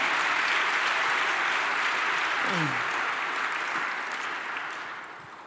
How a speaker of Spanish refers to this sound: Dele un aplauso de honra a nuestro Dios esta mañana.